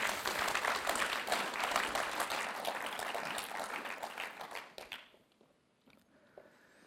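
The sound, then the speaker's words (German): An audience applauds warmly, a dense, steady wash of many hands clapping that holds for several seconds, then thins out and fades to a few scattered claps. “Lass uns noch ein herzlichen Applaus geben.”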